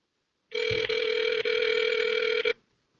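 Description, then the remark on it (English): A cell phone call ringing through a speakerphone: one steady electronic ring tone lasting about two seconds, loud and buzzy with a couple of brief flutters, then it cuts off. No one speaks. “Call motherfucking Papa on speakerphone, see what's going on.”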